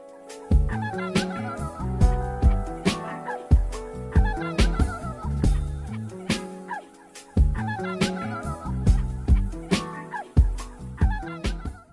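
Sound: small dog yipping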